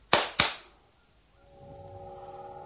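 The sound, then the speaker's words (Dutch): Two sharp, loud hand claps in quick succession, then quiet with a faint steady tonal hum rising underneath. “En als je nu in je handen klapt, dan...”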